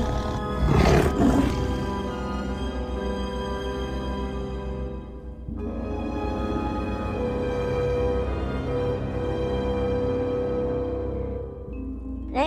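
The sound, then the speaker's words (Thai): A lion roars in a sudden loud burst as it stops, turns and attacks a donkey in the deep forest, then keeps up a long, deep, rumbling growl that rolls on steadily for several seconds, with no voices. “เมื่อถึงกลางป่าลึกแล้ว เจ้าราชสีจึงหยุดทันที หลังจากที่เจ้าราชสีหยุดแล้ว มันก็ได้หันหลังกลับมา แล้วขย่ำเจ้าลาตัวนั้นกินเป็นอาหารอย่างง่ายดาย”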